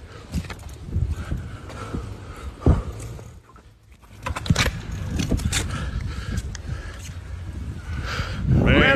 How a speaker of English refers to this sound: almost got hit by a car.